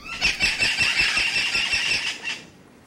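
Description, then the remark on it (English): Loud, shrill squawks from a flock of 11-inch, 10-ounce parrots overlap in a dense, continuous chorus, with faint wing flutter beneath, fading as the birds fly from a cage up into the rainforest canopy in the early morning. “As they go, the birds display rows of powdery blue flight feathers that make their wings and long tails look phosphorescent in the early morning light and their loud squawks make them seem larger than their 11 inch 10 ounce frames.”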